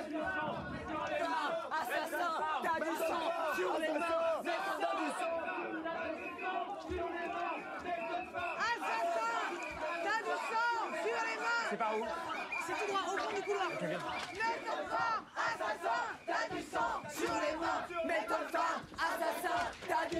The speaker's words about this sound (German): es ging also um eine Gruppe, die auf AIDS aufmerksam machen wollte. Genau genommen waren es hauptsächlich Betroffene und ja, den Film über machen sie viele Protestaktionen und einer davon hört ihr jetzt, passt auf, es wird ein bisschen laut.